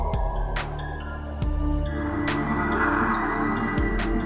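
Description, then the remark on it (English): A slow, ominous breathing sound effect swells in over a low, steady droning hum, with a few faint clicks scattered throughout; no one speaks. “Sounds like someone breathing.”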